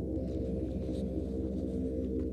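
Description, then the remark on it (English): A sustained synthesizer keyboard plays dense, layered low chords at a steady, full volume, opening a heavy metal song with a droning, ominous tone and no voices. “Another keyboard intro.”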